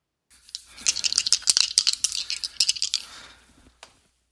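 two dice being rolled

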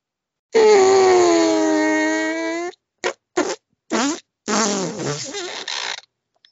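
fart

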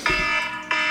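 alarm going off

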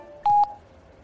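telephone keypad dialing tones

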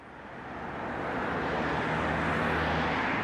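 road traffic

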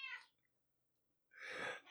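cat meowing

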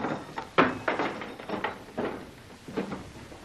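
door being opened

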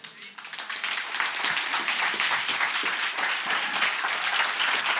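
church audience applause

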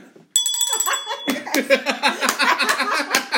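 small hand bell ringing

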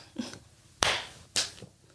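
hands clapping

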